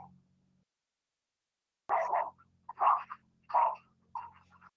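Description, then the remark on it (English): A female dog barks about four times in an uneven series, each bark short and fairly loud, with a faint low hum in the background and no talking. “Maybe I'll change my pick if the dog didn't like it that much.”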